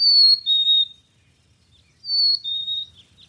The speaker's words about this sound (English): My footsteps clamoring on the uneven ground, a breeze sweeping through the fir needles, a chickadee calling in the distance.